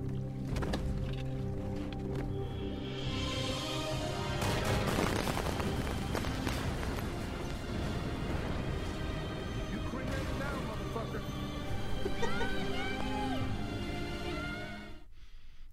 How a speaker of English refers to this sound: Oh man, that's Just so epic. The explosion, the profanity, the gunshots, the screaming child. It oh my lord, it's quite a picture in a graveyard.